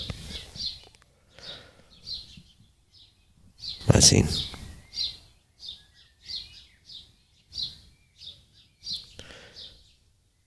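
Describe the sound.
Birds chirp and sing repeatedly in short bursts outdoors, with a brief loud rustle or thump midway and a man speaking a couple of words.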